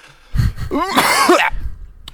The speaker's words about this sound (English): You make sure to put in the cough.